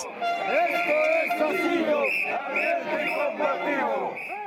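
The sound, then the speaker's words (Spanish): A large protest crowd in Juliaca, Peru, demanding the resignation of President Dina Boluarte, chants and shouts continuously, with shrill whistles piercing through the dense roar of voices, loud throughout. “Ese día, desde temprano, se escuchaban los pitos y las arengas.”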